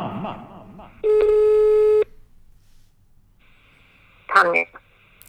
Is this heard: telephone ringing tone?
yes